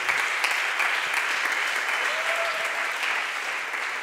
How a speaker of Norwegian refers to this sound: So please, let us all sammen gi en ordentlig applaus Pastor Tony. Please give it up for Pastor Tony.